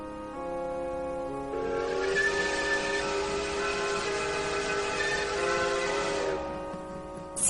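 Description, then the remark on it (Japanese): A steam train whistle blows one long sustained glass-like note as the train quietly starts moving, bright and steady with layered harmonic tones over a breathy hiss, lasting several seconds before cutting off, with rumbling train noise underneath. “ガラスのような笛が鳴って汽車は静かに動き出し”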